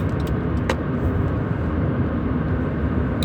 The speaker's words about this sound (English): Sorry, I just got a bunch of exhaust in my face from this truck. Whoa, just like came right in the vents.